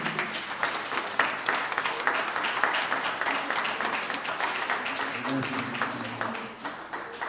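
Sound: audience applause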